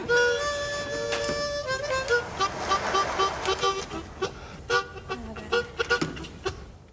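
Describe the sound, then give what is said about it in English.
A harmonica mimics a train: a long wailing whistle-like chord opens, then rhythmic breathy chugging bursts speed along, loud, with no other sounds around it. “he basically fills the gaps and makes some of the train noises with his trusty harmonica, basically.”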